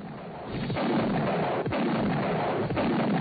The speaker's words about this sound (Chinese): 炮声隆隆，硝烟弥漫，巴顿在第二次世界大战中表现不凡。